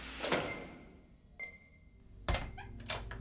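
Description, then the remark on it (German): Automatic doors in a quiet hospital in the evening click and whir, a sharp thunk followed by a steady mechanical hum, then another louder clack and sliding rumble near the end. “Man hört die Schritte von Krankenpflegerinnen auf dem Gang, das Klacken und Surren der Automatiktüren, entferntes Piepen von Monitoren.”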